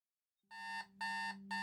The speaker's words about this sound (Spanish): La alarma sonó a las cinco y media de la mañana.